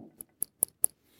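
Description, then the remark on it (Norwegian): Four sharp, light clicks in a steady rhythm, a fingernail tapping the plexiglass crystal of a 1979 model 1680 watch, with nothing else around. “Og så har du sånn fint pleksiglass som forrige gang så viste jeg hvordan et pleksiglass hører ut på neglen.”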